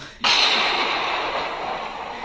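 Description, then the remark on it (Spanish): A thunder sound effect bursts in suddenly with a loud crack, then holds as a dense, roaring rumble that fades only slightly over the next two seconds, with no voices. “Eso merece un mega trueno.”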